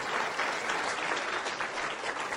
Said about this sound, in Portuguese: Uau, esses aplausos são para ela. Que legal.